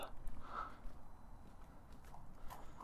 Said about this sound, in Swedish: och jag närmar mig med beslutsamma men ändå lite trevande steg en anonym blå plåtdörr ner till en källarlokal.